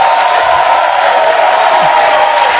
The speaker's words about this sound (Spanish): Por eso, lo importante de los aplausos y los aplausos que te han me han dado hoy a mí han sido para sobrevivir en todos los sentidos. Muchas gracias.